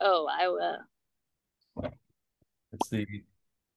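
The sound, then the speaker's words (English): A single short, sharp pop rings out as a cork leaves a bottle of red wine, set between bits of casual talk before and after it. “oh, there we go. That's a nice pop.”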